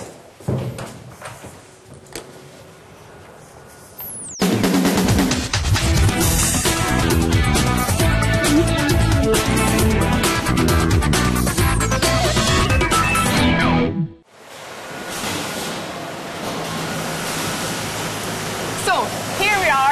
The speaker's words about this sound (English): inside the factory as you can hear, it's very, very loud in here. Today we are producing chocolate muesli.